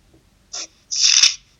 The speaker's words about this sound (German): Oh, irgendwer raschelt.